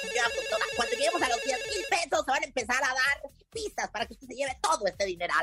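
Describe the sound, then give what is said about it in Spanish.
A telephone ringtone for an incoming call chimes in a steady repeating pattern for about two seconds, then a man talks quickly over a lighter background for the rest. “Ok. Ya tenemos llamada.”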